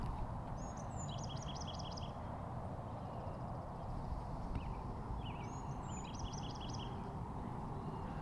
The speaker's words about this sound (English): That bloop, bloop, bloop. Off to the side there, that's robins. Robins have, are kind of, they're kind of stereotypic kind of almost uh, cliche birds, you know, at least where, where I come from. And, and uh, but they got the most gorgeous song.